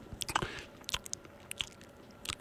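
Crunchy food being chewed in a quiet series of sharp, crackling bites, irregular bursts of crisp noise spaced unevenly across a few seconds, with no talking.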